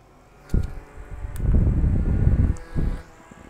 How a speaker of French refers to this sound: Parce que l'enfant m'a dit oui, il y a un petit bourdement. Alors peut-être que c'était à cause de mon ventilateur de la mort qui tue là. Nouveau ventilateur euh, Mac Mini. trois vitesses.